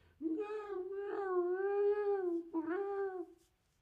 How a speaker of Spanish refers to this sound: Los gatos ronronean, maullan, bufan y gimen también. Sí, los gatos también hacen gemidos.